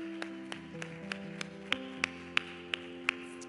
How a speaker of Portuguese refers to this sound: Aplauda o Senhor.